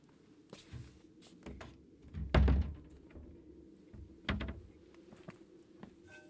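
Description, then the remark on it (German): A door that had been standing open is pushed shut against the cold with a heavy thud, followed moments later by a second softer knock and some faint handling rattles. “Die Tür stand offen. Ich habe mir erlaubt, sie zu schließen bei dieser Kälte.”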